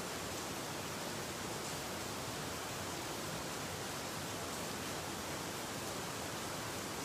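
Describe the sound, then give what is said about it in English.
Steady rain falls in a continuous, even hiss that fills the whole recording, with no pauses, no voices, and no distinct individual drops standing out. “Lord God, the sound of the rain reminds us of your blessing.”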